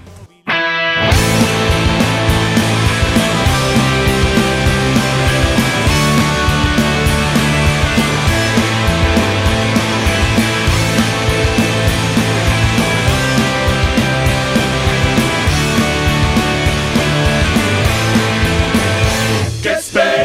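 A loud, dense Argentine rock song with distorted electric guitars, bass and driving drums plays continuously at full volume, kicking in after a brief moment of quiet and running steadily throughout.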